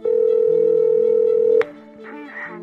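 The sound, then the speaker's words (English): A steady electronic ringback tone of an outgoing call on a phone line holds for about a second and a half, then cuts off with a click, leaving faint line noise behind. “And kept calling.”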